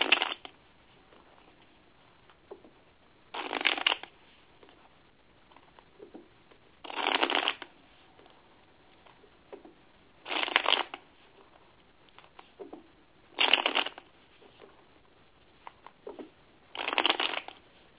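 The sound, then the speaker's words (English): Tarot cards being shuffled for a general reading, with six brisk riffling bursts arriving about every three seconds and quiet pauses between them; no one speaks. “One moment while I shuffle.”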